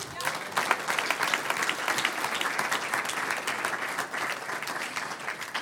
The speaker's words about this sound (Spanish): Amén. Un aplauso al Señor.